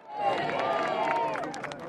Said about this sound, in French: Devant le palais, des milliers de Britanniques attendent leur nouveau souverain et l'accueillent par des applaudissements.